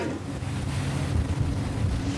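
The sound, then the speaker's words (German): A sea rescue cruiser's engine drones steadily while under way, with wind gusting across the microphone and water rushing along the hull, as a small boat runs alongside on the starboard side and two rescuers cross over to it during the trip; no voices. “Boah, jetzt in der Fahrt kommt jetzt hier so ein kleines Boot und wow, die zwei Seenotretterinnen, die steigen jetzt während der Fahrt rüber vom Seenotrettungskreuzer auf das kleine Boot.”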